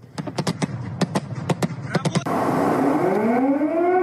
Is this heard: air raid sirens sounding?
yes